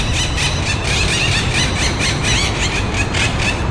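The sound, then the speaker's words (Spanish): A flock of monk parakeets squawks without pause, their loud, harsh, overlapping screeches forming a dense, grating chatter over a steady low rumble of city background noise. “Esta- claro, estas son las cotorras argentinas, Ah, estas que son plagas.”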